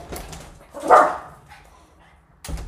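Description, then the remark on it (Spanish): A dog barks at another dog: one loud, sharp bark, then a quieter stretch and the start of another bark at the end, with faint indoor background noise. “Ya, ya está feliz ladrándole al, al perro que quería.”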